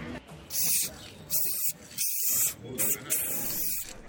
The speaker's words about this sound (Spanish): Así sonaba el spray del pintor autodidacta valenciano Eduardo Bermejo, mientras dibujaba en un lienzo blanco en plena calle